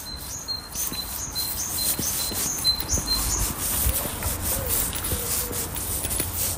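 A great tit in Marino sings a repeated two-note phrase in quick, steady rhythm from some distance, with a wood pigeon cooing faintly underneath amid soft outdoor background noise.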